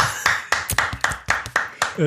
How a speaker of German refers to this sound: ich bin gespannt, ob du das mit dem Applaus jetzt bei jedem Song durchziehst, je nachdem.